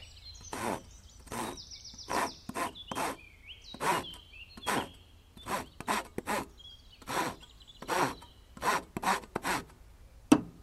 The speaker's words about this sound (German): Kannst du hier mal festhalten? Ich möchte hier ein Brett absägen.